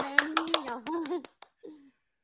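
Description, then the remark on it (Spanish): Brief applause welcoming a new member of the show: a handful of sharp, irregular hand claps over about a second, with a voice calling out loudly beneath them, then a short vocal sound trailing off. “al que le vamos a dar un fuerte aplauso.”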